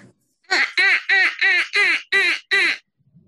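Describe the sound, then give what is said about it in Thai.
A person imitates a duck, letting out seven loud, nasal quacks in a quick, even rhythm, with nothing else around them. “มันคือเป็ดที่ใส่ในอ่างอาบน้ำแล้วโดนเหยียบอยู่ เรารู้ ต้องเหยียบไม่เป็ดแต่จริงๆ เป็ดตามธรรมชาติมันร้องอย่างนี้ไม่เหมือนเนาะ”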